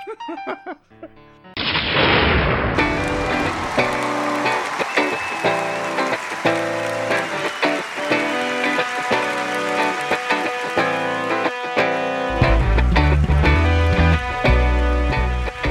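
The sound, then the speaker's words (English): A toilet flushes with a loud, sudden rush of water that surges in after a brief pause and keeps churning steadily, with deep thuds and a tonal hum running underneath. “We're flushing this recording.”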